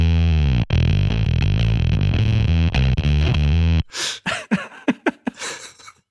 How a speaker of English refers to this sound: Right here, you're going to hear uh, me play the bass through the gain times one thousand setting. Right there.